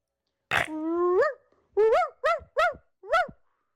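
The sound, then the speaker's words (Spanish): A small dog gives one drawn-out, rising yelp, then four short, high barks in quick succession, clear with no one talking. “Es un perrito, mira.”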